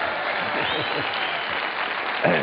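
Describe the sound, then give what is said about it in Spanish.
A steady wash of audience applause at an Amway meeting, for a couple's 41 years of marriage, dense overlapping claps filling the whole stretch at an even volume, with a few voices murmuring underneath and a brief louder swell near the end. “Casados 41 años en julio, ahí pueden aplaudir 41 años matrimonio.”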